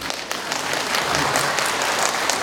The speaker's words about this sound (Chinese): 拍手啊！